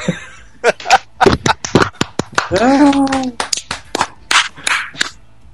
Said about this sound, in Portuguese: Aê! Palmas!